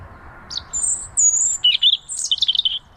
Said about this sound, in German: Doch, das hört sich nach Vogel an. Ja, natürlich ist das ein Vogel.